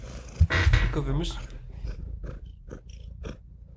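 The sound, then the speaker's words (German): A male cat purrs into the microphone, a low, rough rumble that is strongest near the start, while a person talks softly over it. “Guck mal, hier ist ein Mikrofon. Willst du da mal reinschnurren?”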